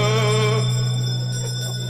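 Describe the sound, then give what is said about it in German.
A single bell rings out loud, its bright metallic tone sustaining and slowly fading over two seconds with no voices present. “Und ähm, jetzt lassen wir die Glocke erklingen.”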